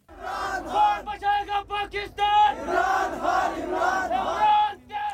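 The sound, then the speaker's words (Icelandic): Protesters in Islamabad, Rawalpindi, Karachi and other cities chant slogans in support of the former prime minister: many voices shout together in loud, rhythmic bursts in a repeated cadence, with brief pauses between phrases. “Margir hrópuðu slagor til stuðnings fórsættis er á þerranum fyrirverandi.”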